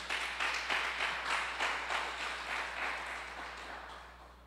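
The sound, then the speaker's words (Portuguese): An audience at an evening worship gathering breaks into sustained applause for the Lord, many hands clapping in a dense, crackling wash that swells early and gradually tapers off over about four seconds, with no voices over it. “Você pode aplaudir o Senhor nessa noite?”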